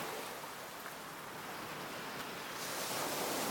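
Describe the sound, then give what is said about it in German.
A steady, full wash of surf noise, like ocean waves rolling onto a beach, with a slight swell in loudness near the end. No voices are heard. “Ach, jetzt waren wir direkt am Strand gestanden.”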